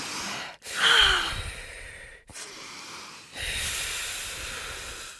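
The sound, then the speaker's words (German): Deep breaths in and out, several broad airy rushes of breath separated by short pauses, steady and moderately loud with no talking. “Jetzt kurz nochmal tief ein- und ausatmen.”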